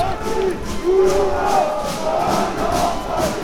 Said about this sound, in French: Et là, la police arrive. Euh, gens mettent le feu aux barricades et euh, ils chantent.